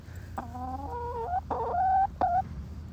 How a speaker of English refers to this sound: This is my chicken Mabel. Uh, so I have two chickens, Mabel and Meredith, that live in my backyard.